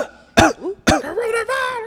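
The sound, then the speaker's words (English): A man imitates a cough with two sharp, forceful bursts about half a second apart, then a drawn-out throaty, voiced sound trailing off. Fairly loud. “My man's just like cough.”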